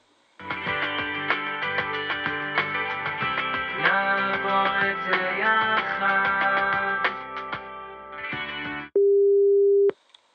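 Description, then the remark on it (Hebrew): Tinny telephone hold music plays steadily for several seconds with a clipped, rhythmic beat, then cuts to a single flat, loud electronic tone lasting about a second. No one speaks. “תמתיני איתי דקה על הקו.”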